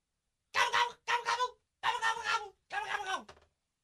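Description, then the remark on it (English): A turkey gobbles four times in quick succession as it is let out and released, each call a loud, rapid warbling burst with brief pauses between, with no talking over it. “I have never heard a turkey that gobbles that much.”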